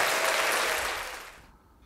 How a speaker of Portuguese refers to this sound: Palminha, achei excelente,